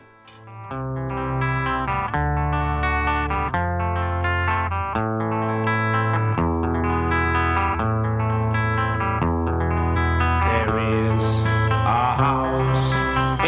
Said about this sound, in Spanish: vamos a escuchar la canción que le hará el programa, …